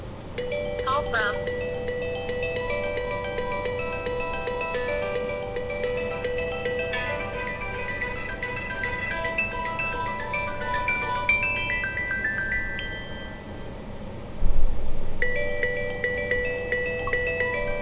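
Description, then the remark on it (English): A Google Pixel 2 phone's default ringtone plays for an incoming call, a bright melodic chime pattern that keeps repeating steadily for over fifteen seconds, clear, with a brief louder bump near the end. “I kind of like that ringtone, but I don't think I would use it.”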